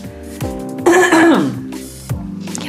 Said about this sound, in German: Ich muss mich kurz räuspern